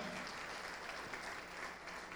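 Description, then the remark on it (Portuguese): An audience applauds Jesus as people come to the front, in a steady, dense wash of clapping that holds at an even level throughout, with no voices rising above it. “Vamos aplaudir mais, está chegando mais.”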